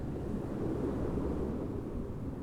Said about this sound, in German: Hier ist aber heute auch schöner Wind, so auch der Wind bläst so durchs Energiefeld.